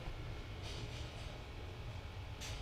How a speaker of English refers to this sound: We're in the LCC archives at the moment. You can hear the low hum of the air conditioning. It's really cold in here.